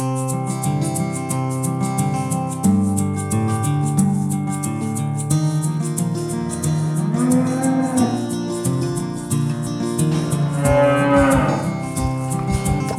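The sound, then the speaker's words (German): Several cows moo in long, drawn-out calls that overlap one another, loud, with a steady background din and no talking. “Wie alt werden eure Kühe?”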